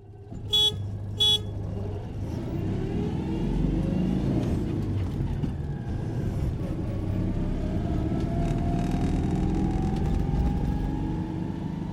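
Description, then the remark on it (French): The small engine of a Renault 4L car drones steadily while driving, loud throughout, with two short horn toots near the start. No one speaks. “En fait, on était fiers d'être, d'être, de rouler avec cette voiture.”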